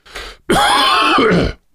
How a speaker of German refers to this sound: jetzt muss ich mich einmal kurz räuspern.